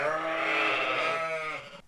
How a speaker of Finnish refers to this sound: Teillä on täällä aika monta lammasta. Kuinka paljon lampaita mahtuu tähän lampolaan? No tällä hetkellä täällä on semmoinen vähän rapia sataa yhteensä, karitsat ja emot, niin sen verran.